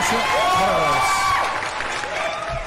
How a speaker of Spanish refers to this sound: Gracias aplauso, por, la visita. Aplauso para los amigos de Yuyo Brothers.